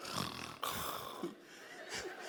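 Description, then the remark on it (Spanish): A person fakes snoring, pretending to have gone to bed, with a few rough, breathy snorts and wheezes in quick succession, fairly loud, with no other talking. “pretend to snore.”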